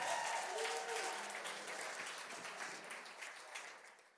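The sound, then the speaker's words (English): A crowd claps and cheers for the fathers present on Father's Day in a dense, steady burst of applause with scattered voices, loud at first and slowly tapering off over a few seconds. “Come on, can we give them a big cheer?”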